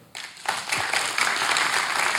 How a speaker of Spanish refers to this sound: Un aplauso para él.